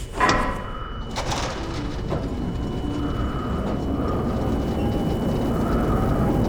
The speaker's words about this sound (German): Druckausgleich beginnt. gleich abgeschlossen. Äußere Tür wird geöffnet.